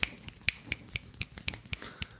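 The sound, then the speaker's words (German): A quick run of about ten sharp finger snaps in roughly two seconds, each a crisp bright click in a steady, rapid rhythm, with no talking. “Ich versuch das mal ja, das war ungefähr die Geschwindigkeit.”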